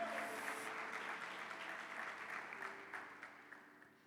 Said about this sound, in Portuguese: Aplauda o Senhor.